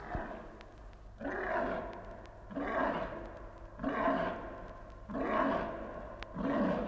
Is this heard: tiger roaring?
yes